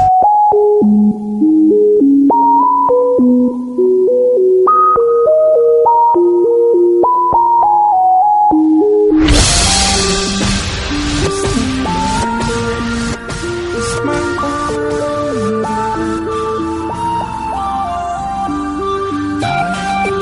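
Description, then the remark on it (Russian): A thin, beepy ringtone-style melody plays a rock tune from a mobile phone on its own for several seconds, then a loud, full-band rock recording with heavy guitars and drums bursts in and carries on. “но когда она начинает звучать из мобильного, получается очень любопытно.”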